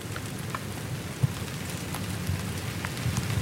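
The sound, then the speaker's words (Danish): Steady rain pattering onto the foliage of huge trees, a dense constant hiss broken by scattered nearby drops and a few sharper taps at different distances, with no voices present. “Kæmpe, kæmpe træer, som også bliver ramt af dig. Sådan forskellige afstande.”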